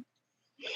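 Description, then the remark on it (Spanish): A single sharp sneeze bursts out after a moment of near silence, loud, with a harsh breathy hiss that carries through to the end. “Salud.”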